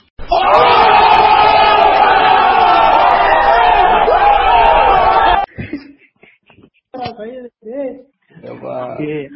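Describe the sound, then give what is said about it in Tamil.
A sound effect of a big crowd letting out a loud, sustained "ooh" shout that lasts about five seconds and stops abruptly. Brief snatches of speech follow. “இப்போ இது முடிஞ்ச உடனே இந்த ஓ அப்படின்னு கும்பலா கத்தானுங்களா சவுண்ட் போட்டு விட்டுரு”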